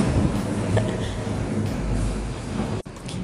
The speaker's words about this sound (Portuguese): Eu tive que parar um pouquinho aqui porque passou um caminhão muito barulhento aqui na rua.